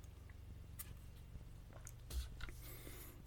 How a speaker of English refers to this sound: I noticed my throat's a little bit, a little rough right now. I'm going to take a sip of coffee and I'll delete it out.